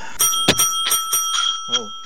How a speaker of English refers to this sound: my new bell sound effect. A bit loud there. I think I'll turn that down.